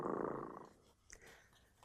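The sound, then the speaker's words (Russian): A cat purring softly, a low, steady rumbling hum for under a second that fades into faint rustling noise. No one speaks. “А вот я слежу за котом дремотой и слышу, что он уже запел свою песенку.”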